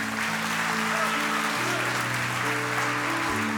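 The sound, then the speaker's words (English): An audience at a Christmas Eve church service claps steadily for the Lord in a dense, continuous wash of applause, while sustained organ-like chords hold and shift underneath throughout. “Come on, give the Lord a good hand today.”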